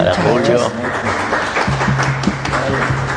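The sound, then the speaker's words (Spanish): An audience claps steadily, a dense crackling patter that runs the whole time, while voices and a sustained low tone sound over the applause. “El aplauso, por favor.”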